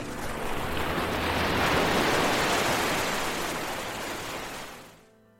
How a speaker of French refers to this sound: vous enlèverez vos chaussures et vous viendrez aussi marcher sur le sable fin de cette magnifique plage des Côtes d'Armor. Je vous laisse écouter encore quelques secondes le bruit des vagues pour RZN Radio.